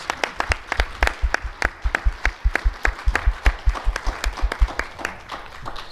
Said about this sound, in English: Uh, before we go on, can the audience please give all of our candidates a round of applause for showing up and answering questions?